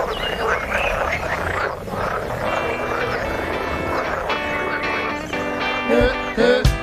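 Raspy frog croaking repeats in uneven bursts, growing buzzier and louder toward the end, with a couple of sharp croaks standing out in the final seconds.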